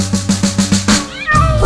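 High, sliding cat-like meows rise over a bouncy, evenly pulsing musical backing, the cries growing fuller toward the end; no one speaks.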